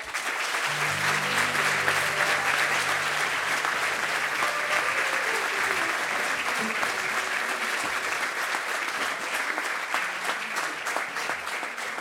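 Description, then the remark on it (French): Sustained audience applause for a family, a dense steady wash of many hands clapping at an even loudness for the whole stretch, with faint low tones briefly audible underneath early on. “je pense qu'on peut encore les applaudir, s'il vous plaît.”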